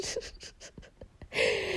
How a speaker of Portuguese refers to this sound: Ai, agora estou a bocejar. É porque eu acordei há bocado, ok?